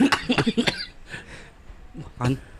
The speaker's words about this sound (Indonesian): batuk langsung gua. batuk nggak biasa biasanya